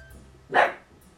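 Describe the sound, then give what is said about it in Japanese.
A household pet dog gives a single sharp bark at the sound of footsteps, fairly loud, standing out against a quiet background with faint low hum and no talking. “すいません犬が吠えましたね今ねうちのワンちゃんですねなんか足音が聞こえたら吠えるんです”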